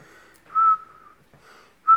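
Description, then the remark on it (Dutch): A person whistles a wavering tune in short phrases in a back room, with a couple of louder, sharper notes breaking out; the sound is somewhat roomy, with no talking. “Ondertussen hoor je, hoor je het gefluit van, uh, van … in zijn achterkamer.”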